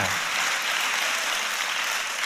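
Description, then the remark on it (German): A crowd applauds God for his idea of love, many hands clapping at once in a dense, continuous wash of sound that holds at an even loudness throughout, with no voices standing out. “Wollen wir Gott mal für seine Vorstellung von Liebe einen mächtigen Applaus geben?”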